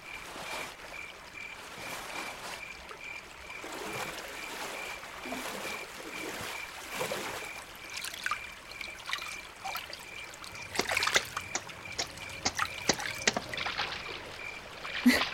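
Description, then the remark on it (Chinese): A stream trickles and babbles softly and steadily, with brief splashy bursts growing more frequent toward the end, and a faint, thin high-pitched pulsing tone running underneath. No one speaks. “趁着他洗衣服的空档，我正好可以去小溪里运功疗伤。”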